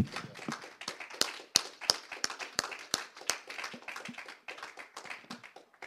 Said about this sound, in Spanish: Ese aplauso es para Él. Démoselo con toda.